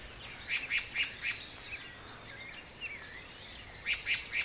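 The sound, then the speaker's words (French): At night under a full moon, frogs croak in quick rhythmic bursts, a run of four pulses and then three more a few seconds later. Faint wavering calls drift between them over a steady hiss. “Les grenouilles braillent en cadence.”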